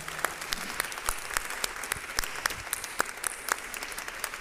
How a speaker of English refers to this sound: Uh, let's clap our hands real quick again for this panel.